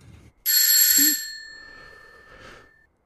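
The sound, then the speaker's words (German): A doorbell rings once, loud, its bright metallic tone holding for a moment before fading away over a couple of seconds. “Dann klingel ich nochmal.”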